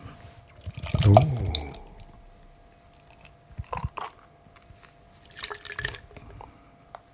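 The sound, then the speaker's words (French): Beer glugs from a can with a provisional stuck-on label into a glass in a steady pour whose pitch rises as the glass fills and nearly overflows, followed by a few scattered drips, clinks and soft fizzing. “Oh, oh, oh, oh, oh, ça l'a failli déborder.”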